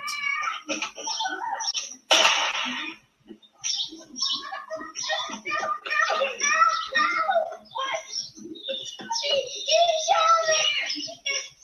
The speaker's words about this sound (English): Saturday afternoon on Candlewood Lane, you'll see kids playing, hear a gunshot